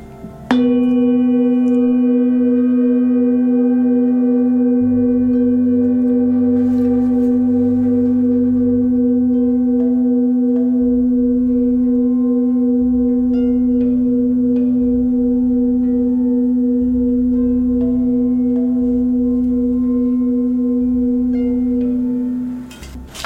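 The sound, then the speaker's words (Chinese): A handmade singing bowl made specially for healing therapy is struck once in a demonstration, releasing a deep, steady hum with shimmering overtones that rings on for over twenty seconds before fading at the end, with no voices. “补充一点，我用的这个波啊，都是特别手工制，嗯哼，专门做疗愈用的波，嗯哼，跟你们平常在外面的精品店啊、礼品店啊、观光场合啊所看到那个波是非常不一样的”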